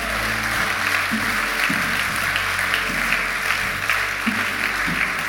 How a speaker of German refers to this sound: Halleluja, lass mal Gott einen Applaus geben. Halleluja.